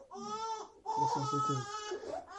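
A small child cries loudly during a sermon, two sustained, strained wails separated by a short breath, with no talking.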